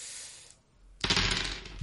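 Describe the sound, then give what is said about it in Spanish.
A soft rattle, a brief pause, then a loud burst of four dice clattering and tumbling across a hard surface, ending with a low knock as one die drops away. “Oh, se, me cayó un dado.”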